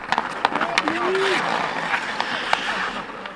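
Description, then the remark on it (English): Ice hockey skates scrape and carve across an outdoor rink during winter in Finland, with sharp intermittent clacks and a brief shout over a steady, airy outdoor hiss. “That sound you hear is the clash of ice hockey skates on an outdoors rink, a familiar sound during winter in Finland.”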